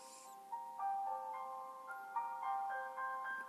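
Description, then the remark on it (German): A reminder alarm melody plays from a device with its sound turned up loud, a bright electronic tune of stepped, sustained notes repeating steadily at a fairly loud level, with no voices over it. “Okay, jetzt kommt die Erinnerung. Die lasse ich mal laufen.”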